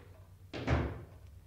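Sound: door being closed shut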